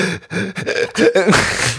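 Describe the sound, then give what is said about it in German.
A person gasps for breath during a breathing meditation in short, strained voiced bursts with brief pauses between, ending in a longer, rough, noisy intake of air. Fairly loud, with no other sounds. “Ich habe Schnapp Schnappatmung.”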